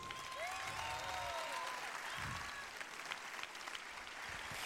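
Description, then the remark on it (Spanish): A crowd claps steadily and loudly for several seconds at the opening of the 26th murga contest, a dense even patter of many hands, with a few high whistles rising over it. “Bueno, empezamos con 26 concurso de murgas. Aplausos.”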